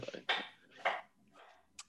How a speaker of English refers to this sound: Uh, oh, I think I can hear um I can hear girlfriend chopping in the back chopping.